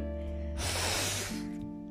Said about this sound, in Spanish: ASMR. De moquito. De moquito.